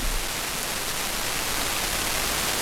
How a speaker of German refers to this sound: Von der Leistung her ist es nicht so wirklich die, der Bringer, aber ich mache einfach mal meinen SDR an, drücke auf Play und wir hören erstmal Rauschen.